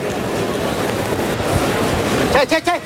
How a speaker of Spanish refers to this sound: Ahí oímos la respiración del toro, de este jabonero. Está echando tierra atrás en el burladero del 8.